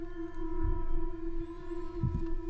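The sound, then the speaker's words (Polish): A steady electronic whine hums throughout, joined midway by a thin, high-pitched squeal that wavers briefly, with soft low thumps underneath and no voices. “E, ja sobie trochę wyobrażam, że e, ten pisk, ten krzyk, to jest trochę jak takie piszczenie, czasem słyszy się na granicy, takie piszczenie telewizora, e, co zupełnie nie jest głośne.”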